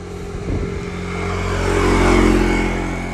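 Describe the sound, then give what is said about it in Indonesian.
A motorbike engine hums and swells as it passes along a roadside street outside a boarding house, rising to a louder rumble midway and then easing off, with steady traffic-like drone underneath and no talking. “jadi suaranya kalau misalnya agak noise noise dikit keganggu sama suara motor kodok ayam ya diwajarin”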